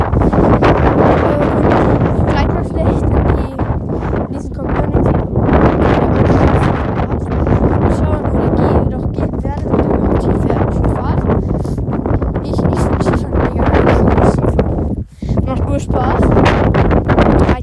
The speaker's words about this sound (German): Sorry wegen dem Wind.